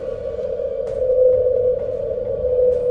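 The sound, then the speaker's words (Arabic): A steady, eerie low hum from the sky drones on without a break, a single sustained tone hanging in the air with a few faint clicks and crackles scattered through it. “لكن هذا الصوت المخيف لا يتوقف عن الطنين”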